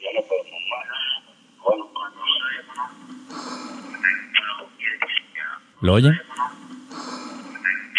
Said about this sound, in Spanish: Es su respiración. Es la respiración de la persona que les está grabando.